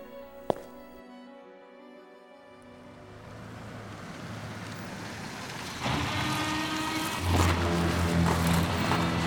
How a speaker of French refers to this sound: La voiture de fonction du contre-amiral Pophéus se gara sur le parking privé de l'aéroport militaire.